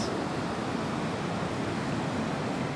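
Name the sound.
ocean waves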